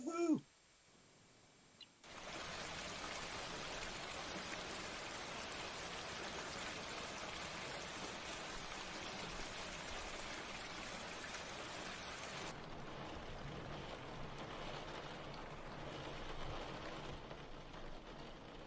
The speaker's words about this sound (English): It's raining outside.